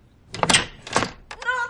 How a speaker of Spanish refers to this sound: Ah, no es nada. Una patada a la puerta.